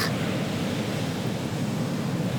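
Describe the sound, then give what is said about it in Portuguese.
A steady, broad roar of sea surf washing onto the shore of a beach at 11 at night, continuous and fairly loud with no distinct individual crashes, and no voices. “Estou de frente para o mar.”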